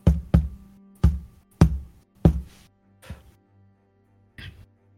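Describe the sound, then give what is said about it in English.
Heavy, booming knocks thud out in an uneven series, about seven in all, starting with a quick double hit, then slower, with the last few softer. “So as you all go back into the hallway, uh, you do hear a thumping noise, like a knock.”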